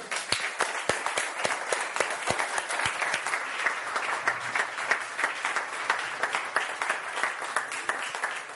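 A church audience applauds steadily for a young man about to be baptized, with dense overlapping claps sustained throughout at an even loudness and a few sharper individual claps standing out near the start.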